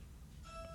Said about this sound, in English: sorry, that's my doorbell.